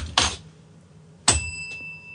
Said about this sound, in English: I had the bell out yesterday when you weren't here